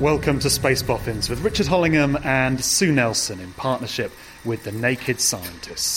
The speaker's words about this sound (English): Now, that whirring sound you can hear in the background there was from the wheels of a prototype European Mars rover. The final version is being sent to the Red Planet in 2018,